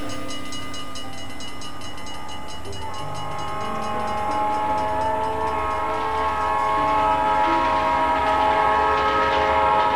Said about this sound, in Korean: 그러던 어느 날 피터는 아이오와에서 만나자는 무디 목사의 연락을 받고 친구와 함께 아이오와로 가는 기차에 오릅니다.